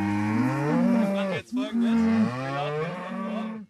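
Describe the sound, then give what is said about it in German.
Cattle mooing loudly, two long drawn-out lowing calls with a brief break between them, no other sounds around. “… wird hier gerade von seinen Rindern übertönt.”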